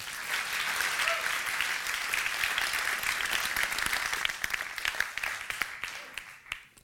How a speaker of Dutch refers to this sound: een warm applaus voor Marjan Minnesma.